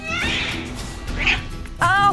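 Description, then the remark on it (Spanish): A pet cat meows in a few harmonic, whiny bursts: one drawn-out cry at the start, a short squeak in the middle, and a louder wavering meow near the end. “Lo que te demuestra mi gato endemoniado.”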